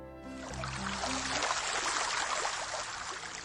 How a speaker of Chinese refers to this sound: 初秋时节，位于温州市龙湾区的瑶溪河河水潺潺，碧波荡漾，岸芷汀蓝，郁郁青青。